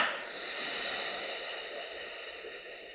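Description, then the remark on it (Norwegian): A long, steady breath exhaled through the nose for a count of eight during a breathing exercise, a soft airy hiss that holds for several seconds, with no talking over it. “Og pust inn godt på fire, altså Og så puster du ut dobbelt så langt på åtte.”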